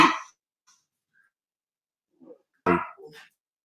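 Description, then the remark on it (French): A dog barks sharply once, then after a quiet pause gives a louder, fuller bark, with a few softer yelps or grumbles around it; these are the speaker's own dogs. No talking. “J'ai mes chiens qui sont d'accord avec moi.”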